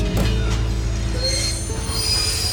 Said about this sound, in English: Maybe this thing was going to stop after all. Sure enough, like he said, the train pulled up and stopped.